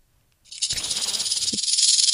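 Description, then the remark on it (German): A dry, hissing rattle from the clattering flap of a toy sound book starts abruptly and continues steadily, a bright shaking clatter with a fast pulsing texture and a brief low knock partway through, with no voices. “Oh, guck mal, hier gibt es noch eine Klappe Sollen wir mal hören, wie die ja, Klappe ist? Die kleppert.”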